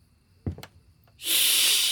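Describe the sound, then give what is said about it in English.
A couple of soft, brief thumps, then a plump black-and-white cat lets out a loud, harsh hiss that holds steady for the rest of the moment, with no talking. “He is greeted by a plump, black and white cat with blood red eyes and teeth abnormally long for a feline.”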